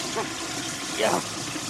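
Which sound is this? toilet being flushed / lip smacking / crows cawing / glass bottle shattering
toilet being flushed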